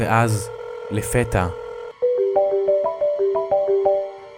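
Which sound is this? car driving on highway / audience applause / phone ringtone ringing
phone ringtone ringing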